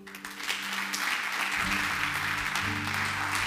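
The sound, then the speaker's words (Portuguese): Sustained audience applause, a dense wash of many hands clapping steadily for several seconds, with a low musical drone or held chords playing underneath. “Dá um aplauso a ele.”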